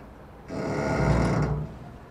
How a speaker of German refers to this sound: Das könnte schon einer meiner Stars sein. Diese singende, schwimmende Brücke. Das ist echt das Soul. Der Soul der Waterkant.